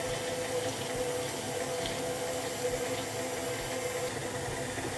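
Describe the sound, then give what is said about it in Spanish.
A steady stream of water pours into a dough mixture as an electric mixer runs, a constant rushing splash lasting the whole time, with a low, even mechanical hum running beneath it. “le añadimos un poco de agua para que se suavice la masa.”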